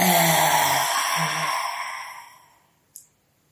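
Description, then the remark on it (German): A long, voiced open-mouth exhale with the tongue stuck out, after an inhale through the nose, as a yoga breathing exercise; a low tone at the start, breathy and airy, fading out over a couple of seconds, followed by a tiny click near the end. “einatmen durch die Nase und ausatmen, Zunge rausstrecken und einen Ton machen.”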